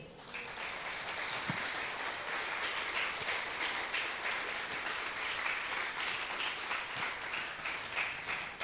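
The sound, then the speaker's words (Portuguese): A crowd applauds steadily throughout, a dense wash of many hands clapping at an even, sustained level without any voices, giving applause for the Lord. “Aplausos para o Senhor.”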